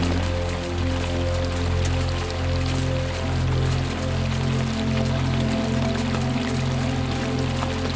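Steady rain from a thunderstorm in the Himalaya falls continuously, a dense, even hiss of drops with a low rumbling hum beneath, constant throughout, with no voices.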